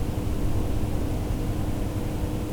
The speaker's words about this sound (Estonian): ma olen praegu bussis ja sõidan ühe linna poole.